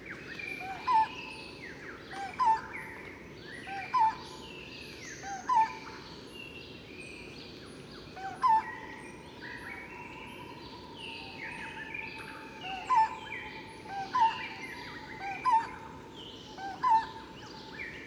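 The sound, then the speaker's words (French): A barbet repeats short, hollow call notes about a dozen times at fairly regular intervals, standing out over a dense background chorus of other forest birds, in the forest of 30 to 40 metre tall trees within the Angkor temple grounds, near the Bayon temple. “dont les barbus. Là, j'ai pas encore identifié l'espèce.”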